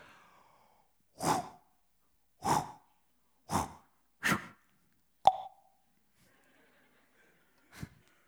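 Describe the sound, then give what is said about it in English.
A voice imitates the sling with which David hurls a stone at Goliath: four breathy whooshes in steady rhythm, then a sharp mouth pop for the release, and one last short puff. Fairly quiet, no words. “And then David reaches into his pouch and gets one of those stones, puts it in a sling, and here's the sound effect I make when I tell this story to my daughter.”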